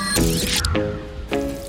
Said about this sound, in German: gießt jetzt schon mal wieder mit seiner professionellen Gießhand. Vor allen Dingen mit meiner gleichmäßigen Gießhand, sodass es nicht zu Verschlemmungen führt und das Ganze langsam eindringen kann.